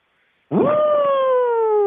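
A voice imitates a police car siren: one loud wail that swoops up abruptly, then holds a steady, slowly falling tone for over a second, with no talking, depicting a police car pulling over a car that ran a traffic signal.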